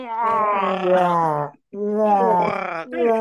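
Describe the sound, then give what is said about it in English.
A voice imitates a dying giraffe with loud, drawn-out groaning moans, two long wavering wails split by a brief pause, then a short third groan begins. “Just it's make the, the sound of a dying giraffe.”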